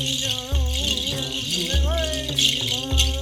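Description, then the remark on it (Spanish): A shaman's rattle shakes in a steady, dense hiss from start to finish, shaken near the legs, back and around the head. Deep thumps land roughly every second and a bit, and a voice carries on over the top. “Coge su sonaja, comienza a agitarla cerca de ti, por tus piernas, llegando a tu espalda, haciéndola sonar alrededor de tu cabeza.”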